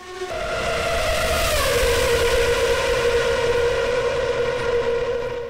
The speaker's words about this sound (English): Hey, for those of you who've never experienced what it's like to be in a Formula One car, take a look.